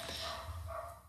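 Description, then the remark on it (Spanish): Dogs in a neighbourhood full of dogs bark, a few muffled, overlapping yaps over a steady background hum, fairly faint and with no voices. “Disculpen los perros, eh una colonia llena de perros.”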